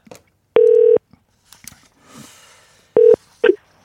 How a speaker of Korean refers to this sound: 전화 연결 해봅니다.